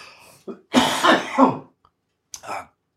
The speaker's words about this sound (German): Hast du Husten oder was? Nein, huste doch.